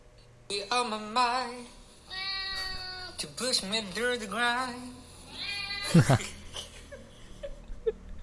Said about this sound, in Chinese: 然后很可爱的地方是我很常对它唱歌，然后它都会喵这样子，就是它都会回我。